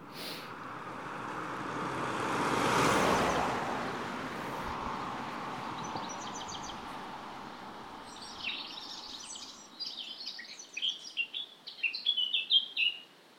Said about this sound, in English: That loud and quite mechanical sounding song is the blackcap. A little bit warbly like a blackbird, but less musical, but more musical than a dunnock.